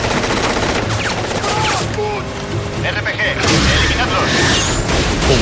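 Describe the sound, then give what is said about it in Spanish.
Dense, loud bursts of gunfire crackle without pause, rapid automatic shots mixed with heavier booms, as pursuers leaning out of vehicle sunroofs fire rocket launchers at helicopters flying overhead, building to a harsher roar near the end while indistinct voices shout underneath. “Asomados al techo solar de los vehículos, se disponen a disparar a los helicópteros que vuelan sobre ellos.”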